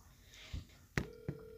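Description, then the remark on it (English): A number is dialed on a telephone keypad: a soft thump, then sharp button clicks with a steady electronic tone sounding between presses, fairly quiet with no talking. “I hope we don't accidentally call the same number.”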